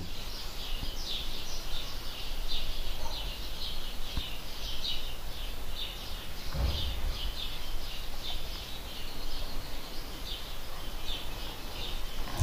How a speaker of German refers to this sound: Vielleicht hört ihr auch selber bei euch irgendwo Vögel. Und einfach mal genießen. Wenn ihr draußen sitzt, vielleicht sogar, oder ihr sitzt irgendwo, wo ihr was hören könnt. Oder ihr hört einfach den Vögeln hier zu.